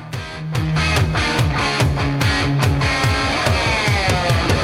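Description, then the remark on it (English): Loud hard rock intro with pounding drums and a driving, repeating bass riff, while a squealing electric guitar bends high notes over the top; instrumental only, no voices. “Then this comes a out. hard rock intro.”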